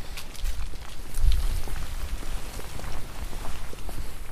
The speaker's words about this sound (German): Das Schöne, was ich jetzt hier gerade so finde, sind, äh, dass man hier tatsächlich die Blätter auf dem Boden hört, wenn sie, wenn die sich vom Wind bewegen lassen.